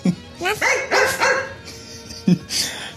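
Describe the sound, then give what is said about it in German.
A human voice mimics a small cartoon dog's barking as a dubbing voice, with a few quick yappy barks and whiny yips, first the English dub, followed by a second, slightly different imitation, the German dub, near the end. “Das war die englische und das war die deutsche Synchronstimme.”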